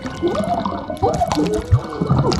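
Wet squelching and sloshing as a right foot sinks into a cold, thick, black liquid, with several gooey sucking pulses and gurgles over a couple of seconds.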